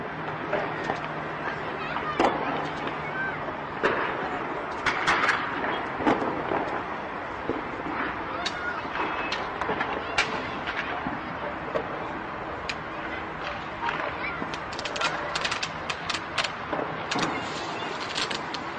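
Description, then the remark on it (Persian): Chaharshanbe Suri street firecrackers: scattered sharp bangs and crackling pops, some in quick clusters, over a constant rumble of crowd murmur and street noise. “یک دقیقه به صدای چهارشنبه سوری گوش کنید”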